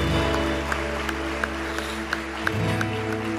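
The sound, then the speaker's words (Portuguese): A church audience applauds the Lord, clapping in a steady, regular rhythm of crisp claps about three per second over a sustained hum of low keyboard-like tones; no one speaks. “E a igreja diga, a igreja diga, dê um forte aplauso ao Senhor.”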